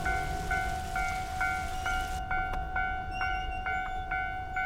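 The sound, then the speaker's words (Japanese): A railroad crossing signal sound effect clangs in a steady, repeating ding-ding rhythm against a constant hiss of a mixed-in rain sound effect that drops away partway through, leaving the bell ringing clearly. “雨の音、そして踏切の音、飛行機の音、パンチの音。”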